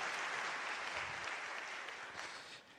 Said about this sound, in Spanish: También un aplauso para ustedes, bienvenidos, qué bueno que están acá.